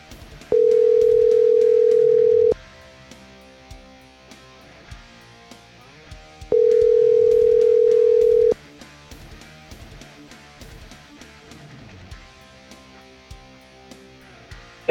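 An outgoing phone call on a Thursday morning rings out twice, each steady tone lasting about two seconds with a pause of roughly four seconds between, loud over a soft background of faint clicks and noise.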